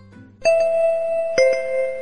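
school bell ringing

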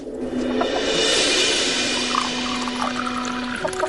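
tea being poured

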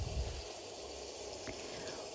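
rain falling

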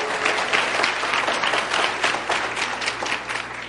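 audience applause

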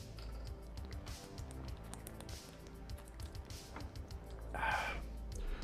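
person drinking water

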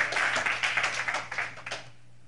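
audience clapping

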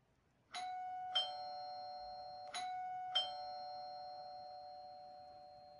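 doorbell ringing

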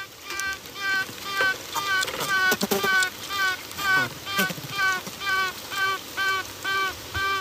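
queen bee piping

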